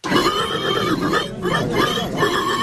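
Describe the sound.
A 28-year-old man loudly imitates a pig squealing in the best pig-cry contest at the Saint-Cochon village festival, with shrill, wavering squeals running almost nonstop and one brief break midway through.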